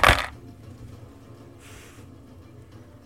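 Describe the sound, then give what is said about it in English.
A quick, sharp, loud clatter of dice rolled for damage in a tabletop role-playing game, striking a hard tabletop right at the start, then fading into low rumble with a brief soft hiss. “I rolled really well.”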